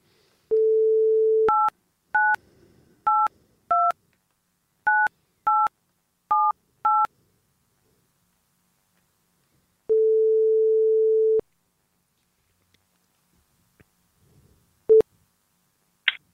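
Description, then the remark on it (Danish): A dial tone hums, then eight quick two-tone keypad beeps are punched in to phone a witness, followed by a long ringing tone and a brief click as the line connects, all clear with no talking. “Okay, så ringer vi til hende.”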